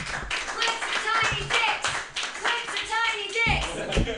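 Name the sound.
audience applause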